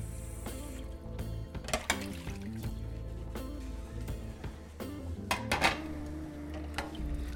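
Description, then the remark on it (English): A woman washes her dishes under running water, with a steady wash of water and several sharp clinks and clatters of plates and utensils scattered throughout, fairly loud. “After she finished washing her dishes, she headed to the front desk to ask them about the job.”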